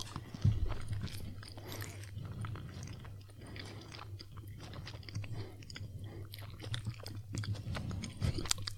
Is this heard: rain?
no